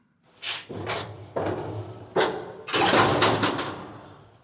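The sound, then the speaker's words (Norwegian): The elevator door of a coal mine in Silesia slides shut with a series of loud metallic clanks and scrapes, ending in a longer rattling, grinding clatter. No one speaks. “Ja, da eh, stenger heisen bak meg her.”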